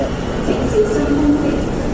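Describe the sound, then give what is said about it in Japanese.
A subway train in Hong Kong rumbles steadily into a station before 7 a.m., its broad low-frequency roar filling the space with a faint high-pitched whine above it and indistinct voices in the background. “地下鉄もう地下鉄もこれで最後やね”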